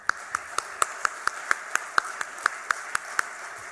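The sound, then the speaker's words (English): Audience applause at a global event for Sri Venkaiah Naidu's speech, in the form of steady, rhythmic clapping: about fifteen sharp, even claps at a brisk pace, moderately loud, over a faint continuous background hum, with no talking. “May I request one more applause for him?”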